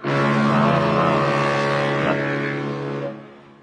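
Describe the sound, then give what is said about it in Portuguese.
A deep, loud horn of a transatlantic ocean liner at Suez sounds one long steady blast for about three seconds, its rich droning tone holding level before tapering off at the end. No one speaks. “uma, uma buzina, né? Lá do transatlântico no Suez.”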